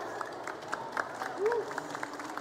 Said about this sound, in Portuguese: Aplausos para ele, dono dessa história toda.